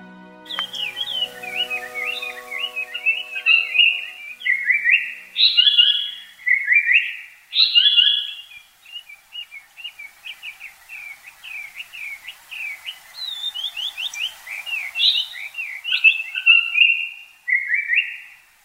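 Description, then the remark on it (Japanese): A Japanese paradise flycatcher sings at the foot of Mount Takao, Japan: rapid high chirping phrases punctuated by a few louder, clearer whistled notes, continuing steadily for the whole stretch with no talking. “頂上から麓に戻ってくると聞こえてきたのは三高町のさえずりです”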